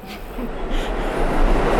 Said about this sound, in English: Stand clear of the tracks when a train is coming into the station.